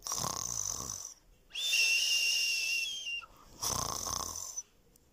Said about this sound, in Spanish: Al fin para de roncar y decide despertar.